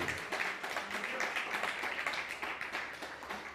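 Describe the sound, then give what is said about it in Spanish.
Steady audience applause, a dense wash of many hands clapping with crisp, rapid irregular claps throughout, sustained at an even level with no voices standing out. “Pues bienvenidos todos, ahora sí, un fuerte aplauso, por favor, por favor.”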